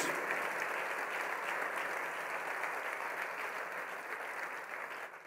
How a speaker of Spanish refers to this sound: Un aplauso a Jesús por darle ese lugar de honor a los niños.